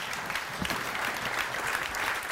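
Steady applause from a group of people, a dense patter of many hands clapping continuously at moderate volume for a couple of seconds, with no speech over it.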